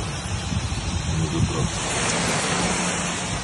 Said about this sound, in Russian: Во Владикавказе власти ввели режим ЧС. Из-за сильного дождя в городе затопила часть улиц.